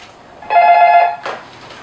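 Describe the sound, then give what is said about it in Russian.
A single electronic telephone ring, a steady buzzing tone lasting about two-thirds of a second, followed by a brief softer clatter, like a handset being picked up; a call from a film academy to a boarding school. “вам звонят из киноакадемии.”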